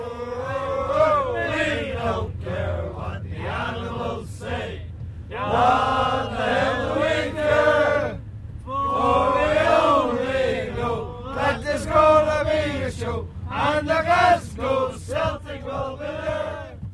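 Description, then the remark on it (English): A large football crowd sings a chant together, many voices blending loudly in long rising phrases broken by brief pauses, with a steady roar of the crowd underneath. “They're singing our songs, it's our flag that they're proud to fly, you know.”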